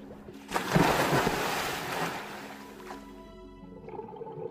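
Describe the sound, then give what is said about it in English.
Waves wash and surge around a snorkeling boat on the barrier reef of the Florida Keys, with a broad rushing swell early on and steady low engine hum underneath, fading to quieter lapping water toward the end. No one speaks. “Right here, we are on the third largest barrier reef in the entire world.”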